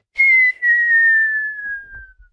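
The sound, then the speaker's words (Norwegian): A person imitates a football fan's loud, piercing whistle, the one heard each time the opposing goalkeeper takes a goal kick: one long sustained tone with a brief break early on, slowly dropping in pitch before trailing off, with no other voices. “Ellers så bare plystrer han jævlig høyt”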